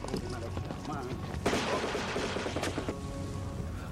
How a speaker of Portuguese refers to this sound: Mano, os cortes são muito bizarros, velho. Bagulho amador, é velho. No meio da, do tiro, corta do nada pra outra coisa. E não continua o som. Ele só corta o som também.